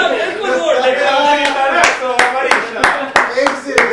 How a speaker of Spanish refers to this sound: aplauso. aplauso.